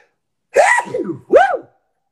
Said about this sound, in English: Sorry, I got some dust in my nose from hiking. I'm gonna sneeze.